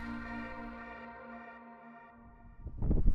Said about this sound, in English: Well, the alarm's gone off, so let's go.